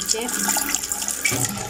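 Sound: water running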